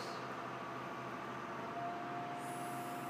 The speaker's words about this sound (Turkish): Yine bir çöp arabası geldi.